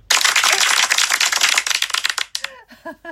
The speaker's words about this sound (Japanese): ごめんごめん。ごめん ごめん。言ってから拍手するつもりだったのに間違えちゃった。